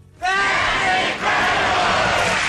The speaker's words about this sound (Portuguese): Uh, mas enfim, um maravilhoso, nada inútil pedaço de facto de, de televisão, sem dúvida digno uh, que toda uma plateia de indivíduos com golas compridas e calças à boca de sino gritasse em coro.